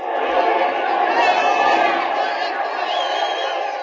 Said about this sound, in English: The crowd's going wild.